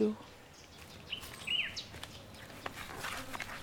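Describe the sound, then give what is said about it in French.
Several short, sharp moorhen calls ring out across the open water of a lake, scattered irregularly over a soft outdoor background with faint rustling and wind. “Comme c'est beau, C'est des poules d'eau, ça, non Ça ressemble poules d'eau le bruit de poule”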